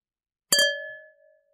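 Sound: wine glasses clinking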